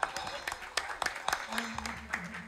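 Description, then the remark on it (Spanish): An audience breaks into applause for a woman who is a nurse, a dense patter of many hands clapping at a moderate level, with voices and a low murmur mixed in underneath toward the end. “Un fuerte aplauso para ella, enfermera.”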